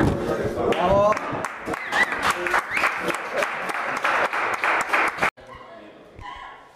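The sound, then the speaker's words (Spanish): An audience breaks into steady, dense applause, many hands clapping loudly for about five seconds before it cuts off abruptly, leaving quieter murmuring sounds. “Bueno, un, aplauso por aquí.”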